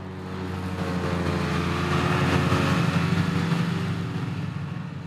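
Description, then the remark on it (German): A large tractor with a modern mowing unit drones steadily with a low, rumbling hum, swelling slightly as it passes, mixed with the whirring of mower machinery, driving over meadows in the Dobertal in mid-July while a dairy farmer harvests hay. “Mitte Juli fährt ein großer Traktor mit modernem Mähwerk über die Wiesen im Dobertal.”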